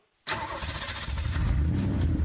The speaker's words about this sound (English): fire up the car for me. Will you do that for me?